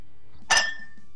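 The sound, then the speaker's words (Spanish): A single bright, crisp clink of ice against a glass as ice is added for a Fernet drink, with a short ringing tail that fades quickly over a quiet background. “Fue un chinchín por ahí. acá, hielo. Hielo para tomar un fernecito.”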